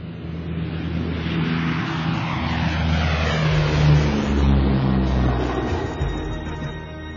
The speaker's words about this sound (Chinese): 四月二十二日早上六点。航空兵独立团团长姚长川亲自驾驶飞行性能优于运输机的杜四轰炸机，搭载韩林一行飞往拉萨。